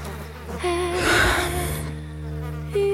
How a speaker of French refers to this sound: Une nuée de mouches noires dansantes et grouillantes, occupant peu à peu tout l'espace visible.